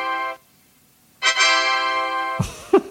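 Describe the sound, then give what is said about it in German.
The Windows XP shutdown sound plays on its own: a brief electronic chime of a few soft, sustained synth notes, the second held longest, ending with a short flourish. “Das war runterfahren XP.”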